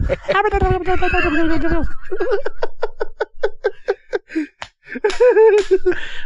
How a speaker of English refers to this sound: I'm slapping my own knees.